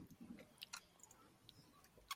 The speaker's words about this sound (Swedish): Och jag fick ta en klunk av läsk. Jag gjorde också det precis.